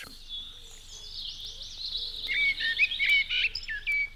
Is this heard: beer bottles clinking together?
no